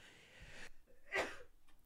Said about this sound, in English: Excuse me. Bless you. Thank you.